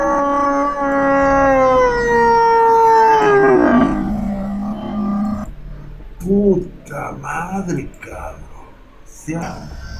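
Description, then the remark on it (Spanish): A bull lets out a long, loud moo that slides downward in pitch over about four seconds, then a person starts talking. “Realmente, miren chicos, esto que les estoy poniendo es el mugido de un toro.”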